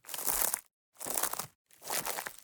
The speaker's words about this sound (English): It looks like there's it's almost like hay that it's just a real standard like broom. Most of the time when we're just putting in footsteps that are on foliage or grass or whatever, we're just crunching that as we're watching the screen.